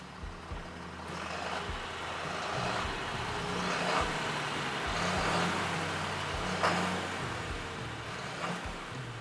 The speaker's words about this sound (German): Wir stehen jetzt am Rand vom Maisfeld und der Agrarunimog treibt die Maispresse an.